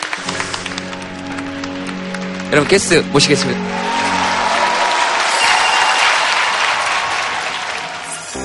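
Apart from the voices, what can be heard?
audience applause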